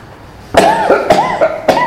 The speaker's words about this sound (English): I was just reminded that I should tell you that my cough is really much better. It's just that at this hour of the day, it's not better. But the rest of the day, it's pretty good.